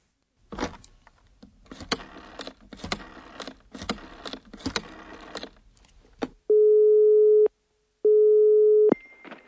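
Rhythmic clattering bursts like dialing give way to a telephone ringing tone on the line: two steady, loud one-second beeps with a short gap between them, as a call is placed to a theatre box office to ask whether tickets remain for The Threepenny Opera. No one speaks.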